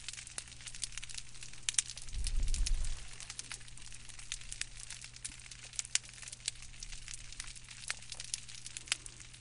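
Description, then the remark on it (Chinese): Dense, continuous crackling and popping from small crustaceans on an intertidal algal reef, countless tiny snaps over a steady low hum, with a brief low rumble early on. No voices. “我们来听听藻礁，藻礁也有声音，然后我们来听一段很关键的藻礁在关心藻礁潮间带的声音。”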